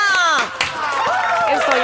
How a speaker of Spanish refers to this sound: ¡Un aplauso, por favor